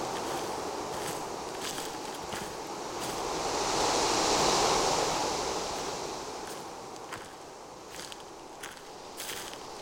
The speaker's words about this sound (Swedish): trampar ner i gyttja och gropar med svart vatten. Snubblar som en drucken över ris och stubbar. Stövelskaften dryper av den sönderkörda markens sörja.